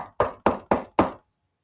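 Four firm knocks on a wooden door in a quick, even rhythm, clear, followed by silence. No voices.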